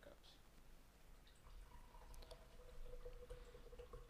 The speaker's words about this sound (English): Because probably, you, you're hearing the, the dribbling of coffee. I pour coffee into a cup right next to the mic.